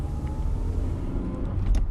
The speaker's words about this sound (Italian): Attraversiamo Via della Chimica in auto, guardinghe, perché sappiamo che non potremmo essere qui e da un momento all'altro i guardiani verranno a bloccarci.